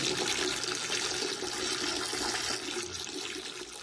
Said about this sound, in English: Hello? Can't hear you. I'm, well, it's because I'm urinating. Hang on, I'm almost done man, I tell you, like these beers, they go right through me, you know?